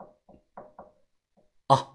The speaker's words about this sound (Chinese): 到了之后啊，我敲了敲门。